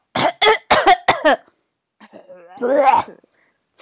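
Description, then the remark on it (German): A harsh fit of four rapid raspy coughs, then a short pause and a long, gravelly, wheezing hack, like a heavy smoker's cough. “Klingt, als wäre ich so seit 40 mhm. Jahren Raucher.”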